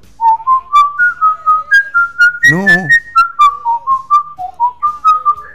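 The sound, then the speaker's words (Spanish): A thin, reedy whistle, a small pacifier-shaped whistle played at the beach, plays Bach's 'Jesu, Joy of Man's Desiring' as a steady stepwise melody of short even notes, briefly interrupted near the middle by a quick spoken word before the tune resumes. “Sí, sí, sí, sí tocó Jesús Alegría del Hombre delante mío con un silbato de, chupetincito.”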